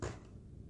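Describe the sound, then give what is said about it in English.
A bracelet slips against a wall as its wearer leans against the wall, making one brief clack and scrape at the start, followed by a faint low rumble amid otherwise quiet surroundings. “that sound you just heard was my bracelet slipping on the wall.”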